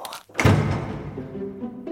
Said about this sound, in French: Là-dessus, Monsieur Seguin emporta la chèvre dans une étable toute noire, dont il ferma la porte à double tour.